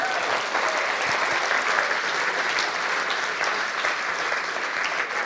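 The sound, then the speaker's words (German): A steady, dense round of audience applause, many hands clapping at once in a continuous loud wash of claps that holds at an even level throughout. “Riesen Applaus mal für sie.”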